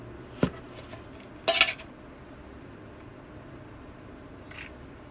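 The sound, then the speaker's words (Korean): A plate is handled: a sharp click, then a brief cluster of ceramic clatter as it's set down, followed by quiet room tone and a faint soft rustle. “이런 건데 그냥, 그냥 이런 데다가 그냥 접시 같은 데다가 그냥, 그냥 올려놓으라고 하더라고요.”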